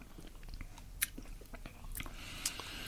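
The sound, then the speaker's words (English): Quiet mouth sounds of someone sipping a Sauvignon Blanc Grand Reserva wine: a few sharp slurps and wet smacks scattered over a few seconds, with no talking. “Well, let me have a little Powerful. sip of this now.”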